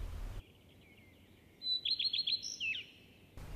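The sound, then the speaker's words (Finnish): A common redstart sings one short phrase: a thin high note, four quick repeated chirps, then a brief twittering flourish, clear against a quiet background. “Viikon luontoääni: Leppälintu”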